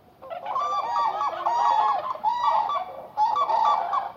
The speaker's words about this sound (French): Leurs discussions sont parfois entrecoupées par les cris puissants des grues.